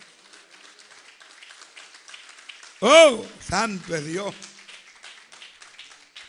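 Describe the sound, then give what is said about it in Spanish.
A church audience claps and applauds for Christ at a low, steady level throughout, while a man's voice breaks in midway with a loud, drawn-out exclamation over the clapping. “Dale un aplauso a Cristo en esta hora, amado.”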